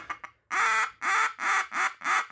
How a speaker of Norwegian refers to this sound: Ja, det er flere and. Det er and. Riktig at det er and.